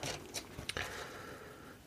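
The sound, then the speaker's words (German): Quiet paper rustling as the pages of issue number 18 of a 1985 magazine are flipped, with a few quick crisp swishes followed by a soft sliding brush of paper. No one speaks. “Die Ausgabe Nummer 18, 1985 beispielsweise, müssen wir mal drin blättern, ob wir uns da getraut haben, eine Auflage aufzuschreiben.”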